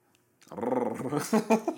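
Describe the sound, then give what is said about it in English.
A dog growls steadily, a low rumbling snarl that starts after a brief quiet moment and rises into a few sharper, louder pulses near the end. “Yo, this dog out”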